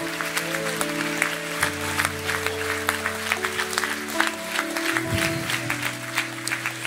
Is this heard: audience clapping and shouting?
yes